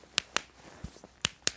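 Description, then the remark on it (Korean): A person's joints cracking: four sharp, crisp pops in two quick pairs, with a soft dull thump between them, against a quiet background with no talking. “옌디도 뼈소리 나는 곳이 있나요?”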